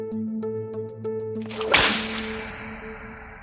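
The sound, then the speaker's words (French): A single loud whip crack snaps out midway, preceded by a series of quick, rhythmic light ticks and set over a steady low musical drone, with no one speaking. “En 1793, c'est parfois à coups de fouet qu'on les chasse des débats politiques.”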